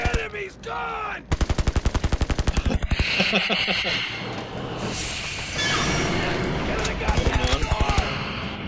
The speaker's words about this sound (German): Moment. Wo ist das Geballer?